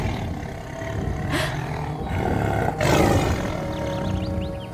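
tiger roar

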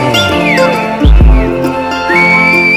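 human whistling

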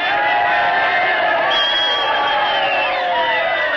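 crowd cheering

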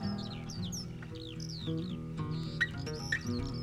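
bird crying

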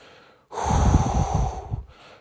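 deep breathing

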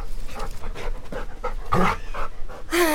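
dog panting

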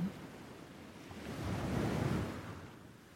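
sea waves

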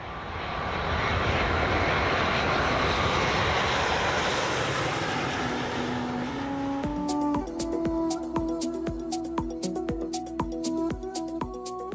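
airplane engine

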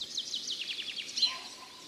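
birds singing

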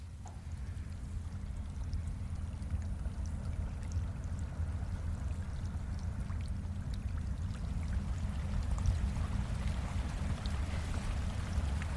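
swollen stream flowing

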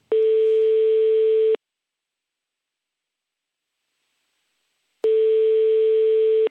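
telephone ringing tone

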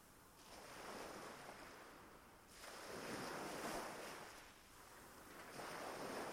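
ocean waves washing ashore

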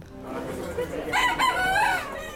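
fighting rooster crowing

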